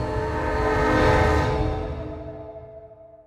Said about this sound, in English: If they don't sort this and move on, soon there'll be another train from Glasgow coming down the tracks and it will barrel right into them.